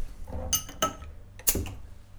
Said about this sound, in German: Vor uns stehen äh, zwei Bierchen. Ich würde sagen, die wir doch die mal anzwitschern. Okay, super. Mache ich mal auf.